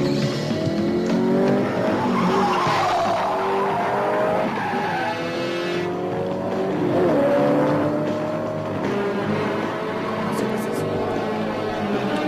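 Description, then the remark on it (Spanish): Cars race, engines roaring and rising in pitch while tires squeal and skid in long, wavering screeches throughout, loud and continuous with no pauses. “¿Los autos no te dan una idea?”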